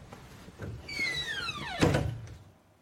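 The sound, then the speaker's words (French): A door slides shut with a squeaky, downward-gliding screech that ends in a solid thud, with faint room noise around it. “Je vous laisse fermer la porte Ouais.”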